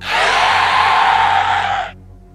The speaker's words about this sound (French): Et surtout, le fameux oh, oh, oh. a disparu, laissant place à un cri lugubre.